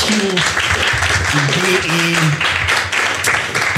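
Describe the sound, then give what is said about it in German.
Loud, steady applause for the partner potju.de fills the whole few seconds, a dense wash of clapping, with a few voices calling out over it during the first half. “Von daher einmal kurz lauten Applaus für potju.de.”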